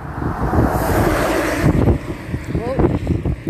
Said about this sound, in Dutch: Lekker, ik loop nu uit het bos inmiddels langs de weg. Hoor je wel, veel vrachtwagens.